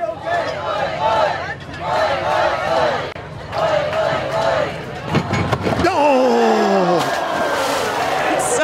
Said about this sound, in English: Why, why is the crowd chanting "Oi, oi, oi"? I don't remember that.